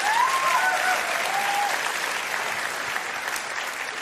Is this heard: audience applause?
yes